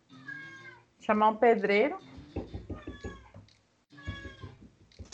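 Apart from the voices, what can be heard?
cat meowing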